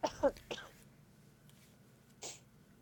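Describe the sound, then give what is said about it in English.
A quick cluster of harsh coughs and throat-clearing rasps after the speaker took a huge hit of weed, then a pause before one more short, breathy cough near the end. “Well, just the way that it hit my lung for some reason, it just decided that it was going to make me choke out.”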